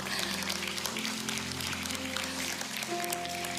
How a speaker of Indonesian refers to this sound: boleh kasih tangan, tepuk tangan dong.